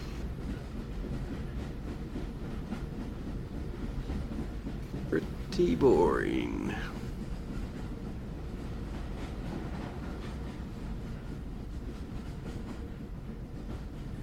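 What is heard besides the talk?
train running on rails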